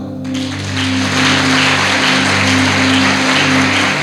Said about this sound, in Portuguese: Quer aplaudir, aplauda.